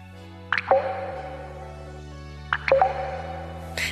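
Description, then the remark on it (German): A water tap sputters dry, giving two short bursts of gurgling, plopping splutters about two seconds apart over a low steady hum, then a faint hiss at the end. “Wasserhahn auf, Wasser sprudelt. Aber was, wenn das bald nicht mehr so ist? In Brandenburg könnte es demnächst so klingen.”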